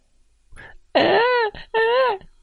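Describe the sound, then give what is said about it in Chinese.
A voice imitates a baby crying: two loud, high-pitched wailing bursts, each about half a second long with a wavering pitch, following a brief soft whimper. “老是哭，那是他最会做的事了。”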